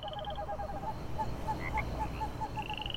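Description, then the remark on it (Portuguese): At night by a highway gas station, a chorus of toads and frogs croaks in steady, overlapping pulses, with higher trilling calls mixed in over a low rumbling background. “grilos, sapos e corujas, misturados ao som das rodas e motores dos veículos que transitavam pela rodovia.”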